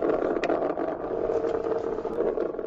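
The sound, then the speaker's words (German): A steady, bubbling drone, the synthetic driving sound of an early electric car by Lotus, gurgling a bit like a coffee machine. It plays continuously and fairly loud, with small rattling flickers and no voices. “Er kommt von Lotus und erinnert ein wenig an das Gurgeln einer Kaffeemaschine.”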